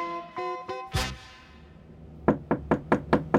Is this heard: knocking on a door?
yes